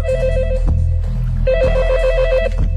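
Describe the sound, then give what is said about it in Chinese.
A telephone ringing as a call is placed to the Pakistani embassy in Belgium, in two bursts, each a rapid warbling trill at a bright, steady pitch, separated by a short pause, with a low hum underneath throughout. “尼杜，打给比利时巴基斯坦大使馆。”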